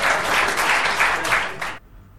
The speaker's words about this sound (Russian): Да не стоит аплодисмент, боже мой, да, спасибо большое.